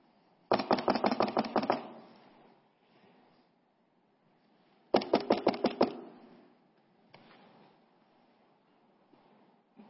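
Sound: knocking on a door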